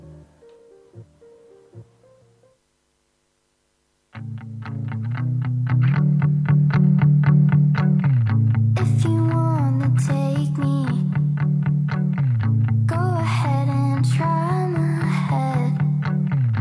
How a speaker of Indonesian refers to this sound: Ya, kan ya udah kita dengerin lagu dulu kita deh. dengerin lagu request dari Mr. Cita yeah.